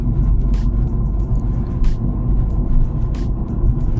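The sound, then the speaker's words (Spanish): A steady, loud low rumble fills the cabin of a moving car as the driver records a video while driving, with the engine and road noise droning continuously and a few faint clicks and rattles on top. “tengo que coger el coche con asiduidad o lo cojo con asiduidad y hago grandes distancias, así que se me ha ocurrido aprovechar ese tiempo, que de otra manera sería tiempo perdido, en grabar estos vídeos.”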